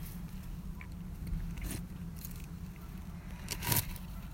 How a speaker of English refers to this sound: Oops, did you hear that rock move?